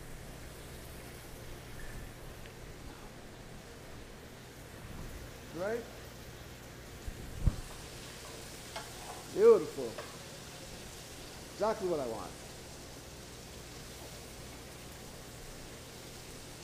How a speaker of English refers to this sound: Well, it's nice and hot. We are going to let these drop. There's a sizzle, that's what you want to hear. If you don't hear that, then you're not in the right place.